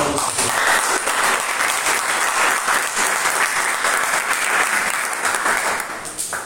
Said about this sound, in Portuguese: Glória a igreja, aplauda